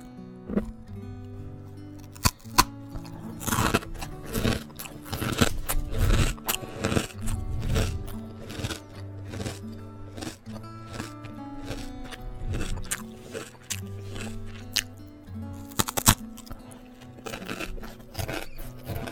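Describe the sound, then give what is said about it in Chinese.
Someone bites and chews crunchy salted egg yolk flavored rice crisps (guoba), producing a steady run of sharp, crackling crunches with irregular rhythm and a few louder snaps, with no talking. “然后吃一块我从家楼下买到的咸蛋黄口味的锅巴，真的这个东西还吃起来挺上头的，要用手，要用手接着吃。”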